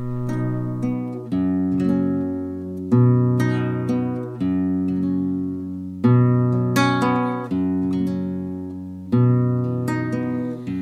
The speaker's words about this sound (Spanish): Vamos a dedicarles esta canción